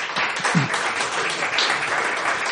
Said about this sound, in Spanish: Bueno, bueno, pues oye, un aplauso, ¿no?